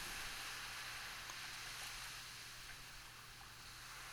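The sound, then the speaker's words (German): Ocean waves wash onto a sandy beach, a steady, broad wash of water that rushes and hisses continuously, fairly loud, easing off slightly toward the end with no voices present. “Und mit jedem Wasserwellenschlag, der näher zu dir, zu deiner Position, zu deinen Füßen kommt, hast du das Gefühl, im Sand etwas erkennen zu können.”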